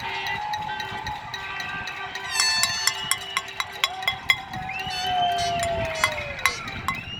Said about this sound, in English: We've got some of the applause just coming in now.